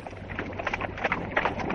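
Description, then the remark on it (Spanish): Horse hooves walking at a steady pace as the horses advance toward the gates of the walls that protect the city, a run of soft, regular clops layered over a constant low rumble and breathy wind-like noise. No one speaks. “El rey don Alfonso se coloca a la misma altura del caballo con el cuerpo de Rodrigo y avanzan hacia las puertas de los muros que protegen la ciudad.”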